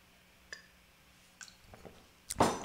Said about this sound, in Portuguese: Deixa eu tomar uma golinho de água aqui, senão eu vou ficar tossindo.